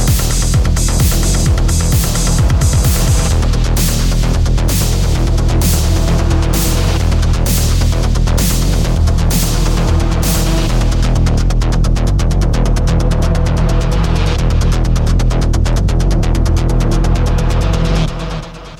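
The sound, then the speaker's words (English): A loud, steady beat-driven music track plays with no talking; toward the end, instruments are taken away little by little, the crisp percussion hits dropping out and leaving a thinner, sustained backing before it cuts off abruptly. “Yeah, and then right now, look, right now how the way it ends, I start I start taking away instruments from it.”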